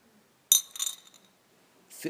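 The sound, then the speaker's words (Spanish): A sharp metallic clink rings out from a bell being used as a drinking glass, with bright high overtones that shimmer and decay over about half a second, followed by a brief scrape. “una campana que estamos usando como vaso.”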